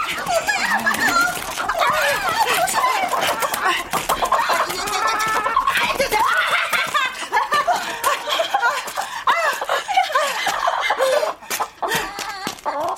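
A chicken, held in someone's hand as it is carried out of a vinyl greenhouse, squawks in frantic distress, loud, with harsh repeated shrieks and clucks running almost continuously throughout, a few sharp bursts near the end.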